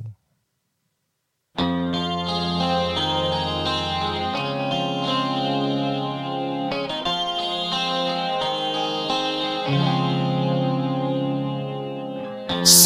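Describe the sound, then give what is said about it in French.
A rock song starts after a brief silence, with distorted, effects-laden electric guitar chords ringing out steadily and loudly, rich harmonic layers sustaining throughout with no vocals yet. “Vous allez voir, c'est une très très jolie chanson que l'on entend vraisemblablement jamais à la radio.”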